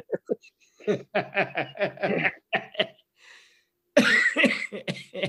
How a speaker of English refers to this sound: I'm coughing.